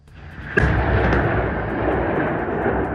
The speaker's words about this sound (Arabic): بماذا ستفيد الكلمات عندما يتحدث صوت المدفع؟